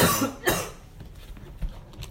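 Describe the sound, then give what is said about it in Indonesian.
A sharp cough bursts out twice near the start, followed by quieter throat noises and breathing; no one speaks. “ya sorry guys batuk nggak apa-apa nggak apa-apa”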